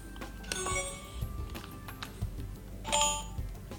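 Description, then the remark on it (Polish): Two short electronic chime sequences from a robot vacuum being switched back on, a bright melodic jingle when it powers on and a second similar tone burst a couple of seconds later signalling it is ready to work, with no speech. “I teraz go znowu włączam. On wyda dwa dźwięki. Pierwszy, że został włączony, drugi, że jest gotowy jakby do pracy.”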